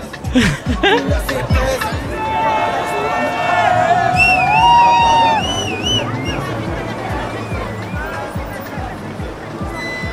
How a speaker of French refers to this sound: Alors je sais pas si tu entends, mais il y a du bruit puissance 1000. Des voitures partout, des klaxons, des gens qui grouillent. C'est plein de vie, ça fait du bien de voir ça. C'est Marseille, bébé.